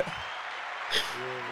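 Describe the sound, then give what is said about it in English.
A round of applause, a steady wash of clapping with a brief louder swell near the middle. It stays at a moderate, even level as a voice begins murmuring faintly toward the end. “Before even, yeah, the round of applause gotta get off because that's not no light shit.”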